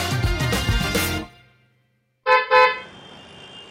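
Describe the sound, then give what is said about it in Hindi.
Two short, loud car horn honks in quick succession, sounded by a driver trying to overtake another car on the road, following a brief burst of music that cuts to silence, with faint road noise lingering afterward. “अरे संभाल के भाई लेडीज गाड़ी चला रही है ए ऑन देना ऑन देना उसको ओवरटेक ही नहीं करने दे रही है”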